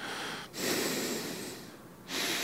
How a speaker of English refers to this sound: I want to apologize uh, for for breathing so heavily, like a pervert okay. in the background.